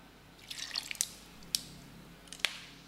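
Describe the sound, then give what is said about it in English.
A touch of water is added to a large bowl filled with ice, making an ice bath for cooling melted chocolate, heard as a few sharp, bright drips and light clinks scattered over a few seconds, quiet, with no talking. “I'm going to add a touch of water to this as well.”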